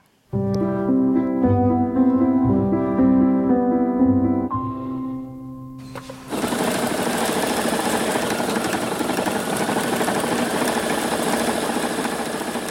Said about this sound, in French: Machine à coudre, brodeuse et coup de ciseaux.